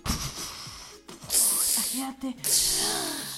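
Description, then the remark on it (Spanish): Several voices make long, breathy hissing sounds in two loud bursts, imitating rain, with bits of vocal noise and murmuring between them. “¿Qué era? Truenos. Truenos y lluvia. A ver, ¿cómo le hacían?”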